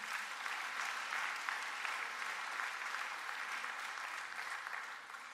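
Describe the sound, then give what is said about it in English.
A large crowd in a church claps steadily and continuously for the church's volunteers who run a street breakfast, a dense wash of applause that holds at an even level for several seconds before easing slightly toward the end. “Yes, yeah, let's, let's hear it for them.”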